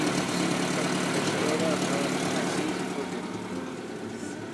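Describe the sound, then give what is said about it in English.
An old Mercedes engine idles in a steady, loud, rough rumble with a broad mechanical hiss, holding the same even drone for several seconds before easing off slightly. “Sounds like a, like an old Mercedes.”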